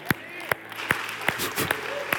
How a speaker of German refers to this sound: Lasst uns mal mit einem riesengroßen Applaus